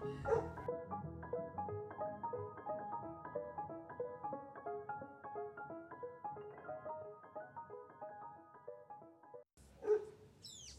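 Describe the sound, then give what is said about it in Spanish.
Soft melodic music plays steadily, then cuts out as a dog lets out a sharp bark or two right at the end. “Perro, cállate por el amor de Cristo.”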